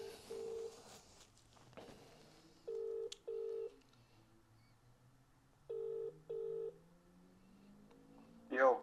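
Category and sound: signal or alarm, telephone call being dialed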